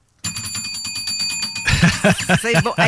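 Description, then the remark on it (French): A small hand bell is shaken rapidly, producing a bright, continuous jingling trill that carries on for a few seconds before people start talking loudly over it. “Soit je t'attache les mains, ou je change, puis je mets une cloche. Je mets de quoi sur le dessus de la cloche?”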